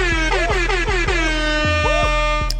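A loud, blaring air horn sound effect blasts in rapid, repeated bursts with a pulsing, wavering tone, filling the whole moment with no voices over it.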